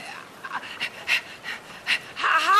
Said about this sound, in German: Ah, da kommen sie gerade. Ganz schwer am Schnaufen sind sie.